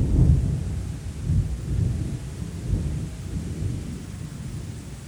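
Steady rain hisses across the whole clip while low thunder rumbles and rolls beneath it, swelling in heavy waves at the start and again midway. No voices.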